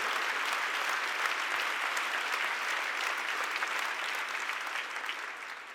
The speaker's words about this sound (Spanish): ¿Cuánto da un aplauso al Rey de Reyes, Señor de los Señores?